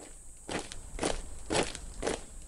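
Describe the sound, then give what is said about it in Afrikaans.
Four steady footsteps with a crunchy, gritty texture land about half a second apart over a faint background hiss, many tiny feet running around inside a mound of hard ground full of little holes. No one speaks. “Hy hoor ook 6 miljoen voetstappies wat rondhardloop.”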